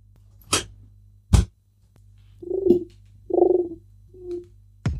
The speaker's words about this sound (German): das ist eine, das ist eine Brieftaube. eine Taube. Ja, Kommt die hat so einen kleinen Zettel hier vorne am Fuß.